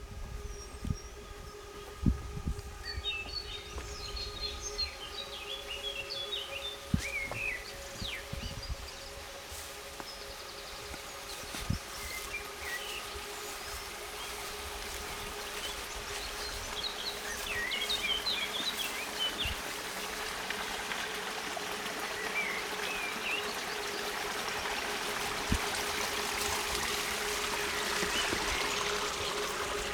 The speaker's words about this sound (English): And I take you on a little tour in my garden. Just some sounds. I hope it's not too windy.